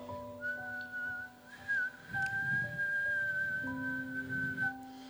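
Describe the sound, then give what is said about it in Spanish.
Someone whistles softly, holding one steady, gentle note for about five seconds with faint breathy air underneath and no talking. “Eso es un silbo apacible, ¿verdad? Un vientito.”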